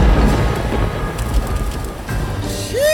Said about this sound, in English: Jeez! I did not come here prepared for rain.